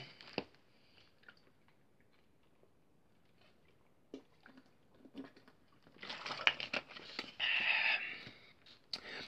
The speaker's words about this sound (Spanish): Amigos, voy a hacer una pausa porque voy a tomar un poquito de agua.